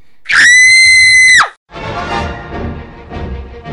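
A woman, an imam's third wife, lets out one loud, piercing, sharp scream lasting about a second on witnessing a stabbing, then it cuts off into a murmur of low, noisy background commotion.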